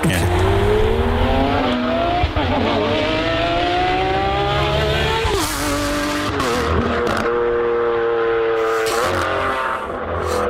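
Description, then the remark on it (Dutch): A powerful V12 engine of a Novitec Lamborghini Aventador SVJ revs loudly, its pitch climbing and falling through several strong sweeps with sharp bursts between gear changes, continuous and dominant with no talking over it. “Over gas gesproken, we hebben ook wat geluid van de Novitec Lamborghini Aventador SVJ.”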